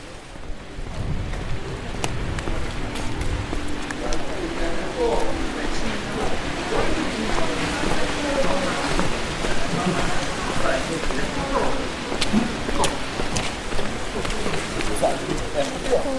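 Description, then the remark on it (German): Steady rain patters and hisses evenly on the Getreidegasse, a street in Salzburg, Austria, continuous throughout, with faint murmuring voices of passersby and scattered clatter in the background. “Als ich da gestern bei noch mehr Regen unterwegs war, da äh, war es relativ gemütlich.”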